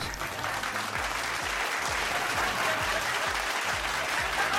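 Sustained applause from a crowd, a dense, steady wash of clapping that stays loud and even throughout with no voices standing out.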